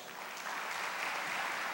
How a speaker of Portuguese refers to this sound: Quem quer se parecer com Jesus, aplauda ele bem forte.